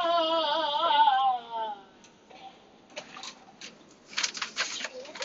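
A bird coos in a warbling, tonal call lasting over a second, followed by quieter scattered clicks and light tapping sounds.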